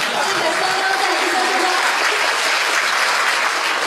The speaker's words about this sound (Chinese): 让大家再次热烈的掌声，感谢他们的高手会场，谢谢。